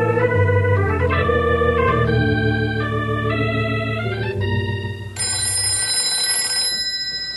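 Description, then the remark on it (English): A telephone at ranger headquarters rings loudly and steadily near the end, a bright, sustained metallic trill following several seconds of layered, shifting tones. No one speaks. “I'll call from the nearest phone and we'll grab a bite to eat while we wait for them.”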